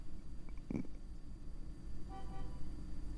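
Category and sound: vehicle, car horn honking outside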